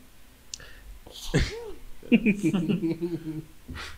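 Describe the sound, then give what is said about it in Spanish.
A can of drink cracks open with one sharp pop and a short burst of fizz, fairly loud, followed by people's voices murmuring and vocalizing. “Déjame abrir mi bote”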